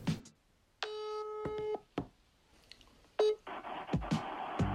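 A phone line rings out with a long steady electronic ringing tone, preceded by short clicks, then picks up into a burst of connection noise and line hiss.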